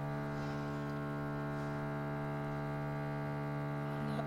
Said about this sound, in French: Alors, ah, encore les travaux.